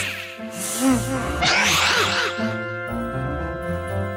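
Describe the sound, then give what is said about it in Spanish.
A whale's single huge, exaggerated sneeze, caused by smoke from a fire lit inside it, erupts loudly over a steady musical background, a brief inhaling buildup followed by a forceful, breathy burst that fades as the music continues. “Estornudó tan fuerte que los tres salieron disparados de su interior, al fin libres.”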